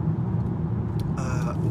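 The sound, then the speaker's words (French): A car cruises along with a steady engine and road rumble throughout, a brighter whooshing hiss rising near the end as it pulls out to overtake a slow, licence-free microcar so as not to be held up. “je vais le dépasser, lui, c'est une voiture sans permis, sinon je vais être bloqué.”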